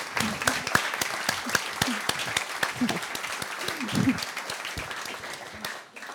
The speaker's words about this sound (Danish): Woo! Vi klapper lige.